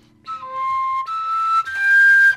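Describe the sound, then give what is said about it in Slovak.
A koncovka overtone flute plays three sustained, breathy notes in quick succession, each stepping higher, with airy hiss growing on the last one. No voices, just the flute, fairly loud. “Ako keď si si chytil tú píšťalu a spravil”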